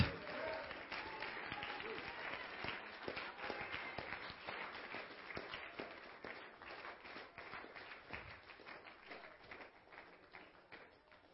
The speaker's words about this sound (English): Get a load of hand clap tonight.